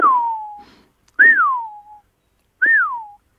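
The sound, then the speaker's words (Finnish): A person whistles three times in imitation of a Eurasian wigeon, each call a clear, downward-sliding whistle, the last two rising briefly before falling, separated by short pauses. “No, se haapana vihellys ilmeisesti vaikutti siihen lauluotsen parveen sille, että ne ajattelivat, että onkohan täällä joku sulapaikka, ja ne kääntyjen tuli suoraan yli.”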